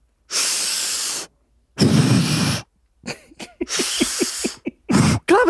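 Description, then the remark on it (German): A voice imitates exaggerated, deep breathing: two long, loud, hissy breaths, followed by a burst of rapid, choppy panting with short gasps, with no talking. “Ich glaube, das liegt auch einfach daran, dass man einfach halt auch dann dadurch natürlich atmet wie so ein Vollspasti. wie So ein Vollidiot, weil du atmest ja dann einfach nur so”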